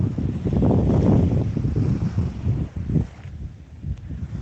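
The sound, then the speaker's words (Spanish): Sea waves wash and rumble in a broad, low roar, swelling loudly for a few seconds before easing off, with gusty wind noise buffeting the microphone throughout. “Escucha el ruido de las olas.”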